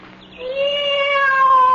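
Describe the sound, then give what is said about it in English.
A cat coming up the wall lets out a single long, drawn-out meow, loud, with a steady whining tone that holds for over a second. Nobody is talking. “Why, Oh, Cat. I'm so glad to see you.”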